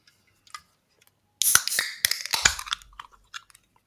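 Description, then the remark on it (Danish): A small 33 cl silver can of 6.2 percent beer, made with quince and oats, snaps open with a sharp metallic crack, followed by a second or so of fizzing hiss and a few faint clicks, with no talking. “Og så er det en lille 33 cl sølv her. En lille mm. dåse. Jamen, skal vi åbne den?”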